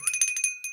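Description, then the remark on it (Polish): A small bell rings in a rapid, rattling trill of bright, high metallic strikes, then pauses briefly before one last ring. It sounds on its own, with no voices. “Pozwoliłem sobie tak przytłoczony ilością troszeczkę- dzwonków.”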